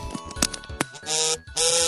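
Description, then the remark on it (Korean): A phone vibrates in two sustained buzzing bursts, each roughly a third of a second, rattling loudly after a few sharp clicks and knocks. No one speaks. “진동 을렸다 이거지.”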